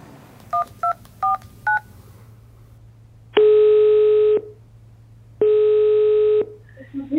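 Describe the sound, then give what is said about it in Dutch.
Four quick telephone keypad beeps are dialed in a short burst to call a professor of radiotherapy, followed by two long, loud ringing tones separated by a pause, over a faint low hum with no one talking. “Ik bel met Rick Haas, bijzonder hoogleraar radiotherapie en behandelend arts van Puk over de zeldzame vorm van kanker die Puk heeft getroffen.”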